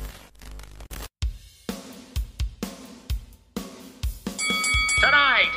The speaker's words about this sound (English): Enter typing typewriter noise.